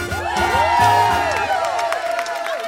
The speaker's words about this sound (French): on peut tous applaudir Sacha pour cette excellente réponse